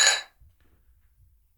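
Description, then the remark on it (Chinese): Glasses clink together once in a toast, a bright ringing chime that fades quickly, followed by a quiet low rumble with no voices. “来干杯， 来干杯。 为梦想干杯。”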